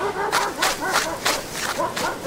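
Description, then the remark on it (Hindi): Several dogs bark and yip in quick, overlapping bursts, loud, on a beach at night as they chase a person, with a steady rush of background noise underneath. “प्रिया जैसे ही पलटी कि कुछ कुत्तों ने उसे दौड़ाना शुरू कर दिया दौड़ते दौड़ते पलटकर प्रिया ने टॉर्च की रोशनी में देखा तो उसे कोई कुत्ता नजर नहीं आया पर कुत्तों की आवाज जरूर आ रही थी”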